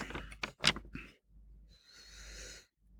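A quiet sip of a drink: a few short wet slurping bursts, then a longer airy intake through the lips, with no talking.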